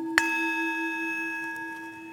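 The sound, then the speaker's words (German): A singing bowl, rung in place of church bells to call to a time of rest and prayer, is struck once: a soft metallic strike followed by a long, steady shimmering tone that sustains and slowly fades. No one speaks. “ist für mich eine Klangschale etwas geworden, wo mein Körper langsam merkt, wenn die erklingt, dann ist jetzt aber Schluss mit tun.”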